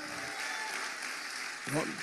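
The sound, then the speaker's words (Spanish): An audience applauding the Lord in joyful celebration of freedom, a dense, steady wash of many hands clapping at once, with a brief voice breaking over the noise near the end. “Hoy sí, dele fuerte ese aplauso de júbilo al Señor.”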